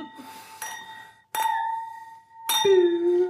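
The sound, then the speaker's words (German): Several bright glass clinks ring out in succession, each with a sustained shimmering tone, like glasses being touched together in a toast, fairly loud with no talking. “Mehrfaches Anstoßen.”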